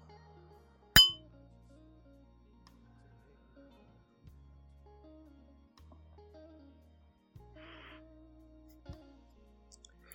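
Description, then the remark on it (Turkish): A single bright clink of glasses raised in a toast rings out near the start and fades quickly, followed by a faint tap later over a quiet, low background hum with no talking. “Birbirine hoşgörü, saygı, sevgi çerçevesi içerisinde yaklaşıp birbirini dinlemeyen insanların şerefine kadeh kaldıralım.”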